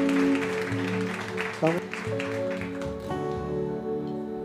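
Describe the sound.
An audience claps steadily, a dense crowd of hands sustained for several seconds, with held musical tones and a few voices mixed in underneath.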